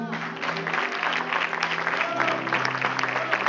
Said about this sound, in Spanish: Dile un aplauso a esta joven.